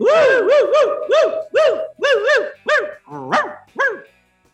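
A dog barks loudly, a rapid series of about ten sharp, yelping barks in uneven bursts, with no other voices around.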